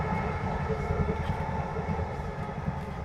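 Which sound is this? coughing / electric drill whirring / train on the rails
train on the rails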